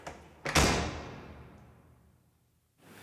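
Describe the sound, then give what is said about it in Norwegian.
A door slams shut in the face of a canvasser handing out leaflets about the EEC in the Majorstua and Frogner area of Oslo's west side, with a heavy, loud bang, preceded by a brief lighter knock and followed by a reverberant tail that fades over about two seconds. No one speaks. “Noen steder så fikk jeg jo døra rett i ansiktet, særlig på vestkanten.”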